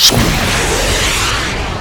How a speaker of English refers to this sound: Like a giddy schoolboy, he tucked his derby hat behind his back and pressed the button on the joystick, making the two jets on the back of the chair roar to life. In a loud burst of heat, blue flames shot out of the jetpack